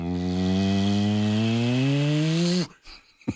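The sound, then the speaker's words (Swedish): A voice imitates an airplane taxiing, holding a steady, buzzing engine drone that slowly rises in pitch for over two seconds, then cuts off abruptly, followed by faint breathy sounds. “Vi taxar ut på runwayen, vilket är min absoluta favoritkänsla när man flyger. Man hör den bara”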